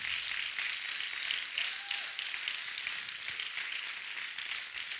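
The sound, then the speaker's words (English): A crowd at a preacher's gathering claps steadily and continuously for several seconds, applauding for God, a dense wash of many hands clapping together at a fairly loud, even level with no pauses. “Come on, clap like God's awesome.”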